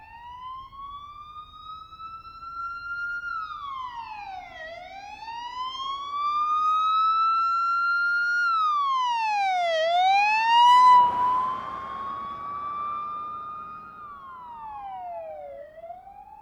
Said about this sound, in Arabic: لما تكون واقف في الشارع وتكون في سيارة إسعاف أو إطفاء قادمة باتجاهك تحس بأن موجات الصوت عالية قادمة باتجاهك لأنها موجات منضغطة مع اتجاه حركة السيارة والعكس لما تطوف من عندك سيارة الإسعاف فتكون الموجات متباعدة ويقل الصوت معها وانت واقف مكانك ما تحركت